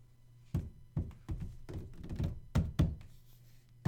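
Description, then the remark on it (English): Heavy, repeated thuds pound against a door as men with guns bang on it, about eight forceful blows in an uneven rhythm with a low hum beneath, loud with no voices. “Men with guns are at the door. They have been since you first heard the banging.”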